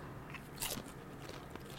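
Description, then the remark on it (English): A crunchy bite into a loaded nacho chip: one sharp, bright crackle followed by a few softer crunching chews, fairly quiet with no talking. “Oh, I'm going to get a big bite.”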